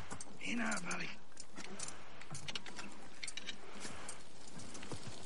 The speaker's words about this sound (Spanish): Jamie quita la herradura al caballo. Un hombre coge unas tenazas.